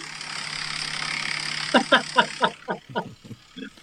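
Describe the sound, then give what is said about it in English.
A wood chipper engine runs with a steady, buzzing whine, then breaks into a rough, rhythmic chugging of loud pulses, several per second, prominent. “Sounds like a lightsaber, but it's supposed to be a wood chipper.”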